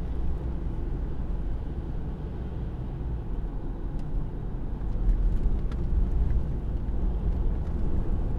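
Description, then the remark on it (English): Strong wind buffets the microphone in a continuous low, roaring rumble that swells slightly louder partway through, with faint crackles above it and no one speaking. “wow, it's really windy here. Just noticing the wind. Kind of fighting the wind.”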